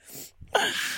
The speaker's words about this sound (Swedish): prosit. Tack.